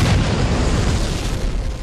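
A loud, sustained explosion effect with a deep booming rumble and crackling debris noise rolling on for nearly two seconds, with no voices.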